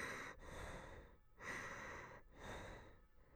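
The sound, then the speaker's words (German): A voice imitates nervous breathing during a breast ultrasound scan: three quick, breathy inhales and exhales in a steady rhythm, with short pauses between them and no speech. “Dabei wahrscheinlich noch mein nervöses Atmen.”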